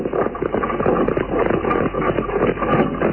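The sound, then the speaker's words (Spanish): Four black horses pull a funeral carriage that jolts along a dusty, lonely road over dry earth, their hooves clopping in a busy, continuous rhythm over a low rumbling undertone, fairly loud throughout with no voices. “lejos de ahí, por el polvoso y solitario camino que conducía a los páramos, la fúnebre carroza tirada por cuatro caballos negros avanzaba dando tumbos entre la reseca tierra.”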